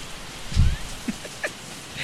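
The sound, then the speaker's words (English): Heavy rain pours down outside a garage in a steady hiss, with scattered sharp drips and one dull low thump early on. No one speaks. “that shit is distractingly loud. like I just felt my arm get wet.”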